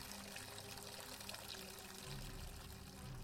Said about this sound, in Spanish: El sonido chasqueante de su orina contra el agua del inodoro fue liberador. Suspiró satisfecho.